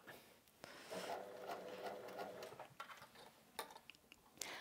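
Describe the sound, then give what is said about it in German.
A sewing machine set to stitch number 6 runs in a quick, steady burst of stitching with a rapid mechanical whir, then slows into a few scattered clicks and taps near the end. No one speaks. “Du oh, bist nämlich auch auf Nahtzahl 6. Ich wollte gerade sagen, ja! es hört sich immer noch ein bisschen komisch an.”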